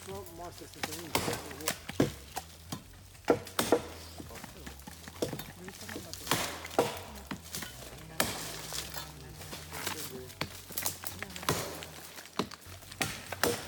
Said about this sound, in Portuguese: Depois de recolher os ouriços caídos no chão, eles quebram os cocos para retirar as castanhas. O barulho dos facões afiados ecoa na floresta.